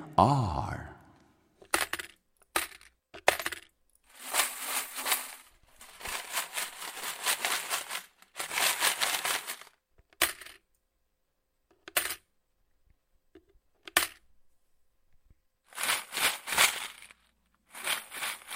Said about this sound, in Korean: 동전 소리죠. 저금통에 한 푼, 두 푼 집어넣고 흔들어 보는 소리입니다.